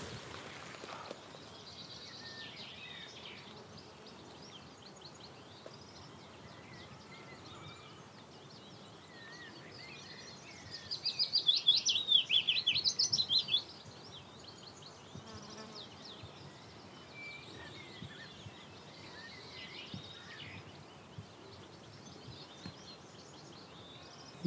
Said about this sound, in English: that willow warbler's really loud now. You can hear it singing oh. right, oh. right above our heads.